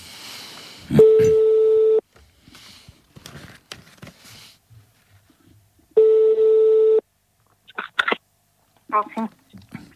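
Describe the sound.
A phone ringback tone while placing a call outside the Orange network sounds twice, each a steady, loud electronic buzz lasting about a second, spaced several seconds apart, with quiet voices talking in between.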